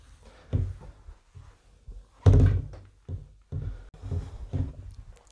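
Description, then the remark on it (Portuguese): A cloth rubs and wipes across a door during cleaning, producing soft swishes mixed with dull thumps and bumps at irregular intervals, moderately loud, with no voices. “Passar o pano na porta.”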